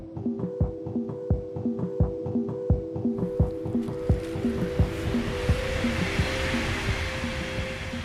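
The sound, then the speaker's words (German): A high-speed ICE train rushes past a memorial site, its wheels clattering in a rapid steady rhythm over a humming tone, swelling into a loud roaring whoosh as it passes. “Während ich an der Gedenkstätte bin, rasen immer wieder Züge an mir vorbei. Vor allem, wenn das ICEs sind, die da vorbeidonnern, dann finde ich das irgendwie unpassend.”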